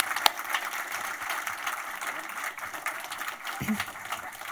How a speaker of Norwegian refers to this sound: Eh, gi dem gjerne en god applaus.